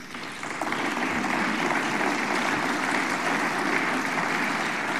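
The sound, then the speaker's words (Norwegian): Sustained applause from a large crowd in the European Parliament after a speech by Ursula von der Leyen, a dense steady wash of clapping that swells in within the first half second and holds evenly throughout, with no voices. “Det fikk mye applaus i Europaparlamentet.”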